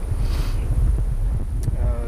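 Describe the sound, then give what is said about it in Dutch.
Strong wind buffets the microphone with a constant low rumble and gusty roar, loud throughout, with faint voice fragments buried underneath. “Dus het, eh, het, waait, eh, het wel stevig waait trouwens.”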